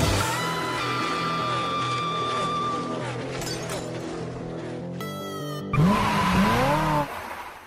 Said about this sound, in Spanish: Damas y caballeros, Enciendan sus motores y que comience la adrenalina. Verde, verde, verde. Arrancamos.